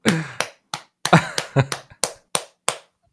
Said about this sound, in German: und was ich auch noch dabei mache, ist manchmal klatsche ich auf meinem Bauch für die Geräusche.